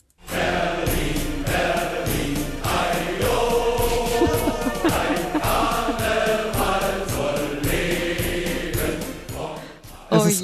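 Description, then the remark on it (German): A festive Berlin carnival hymn with voices singing over a steady, driving beat and full band backing, loud and continuous for about ten seconds before cutting off abruptly. “Dabei haben wir selbst hier in der Hauptstadt Karneval und sogar mit einer eigenen Hymne.”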